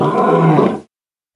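A loud, growling dinosaur-style roar bursts out, rough and sustained for under a second before cutting off abruptly into silence.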